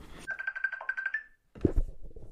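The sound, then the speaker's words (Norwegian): A phone rings with a rapid, warbling electronic trill, a single burst of about a second, followed by a short pause and then a few thumps and rustling noises. “Da ringer vi helsebroren.”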